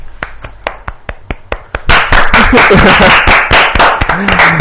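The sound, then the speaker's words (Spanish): Applause that starts as a few steady, evenly spaced claps, then swells into louder, denser clapping from several hands, with faint voices and cheers mixed in. “Venga, demos aplausos todos.”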